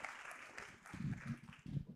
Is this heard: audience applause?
yes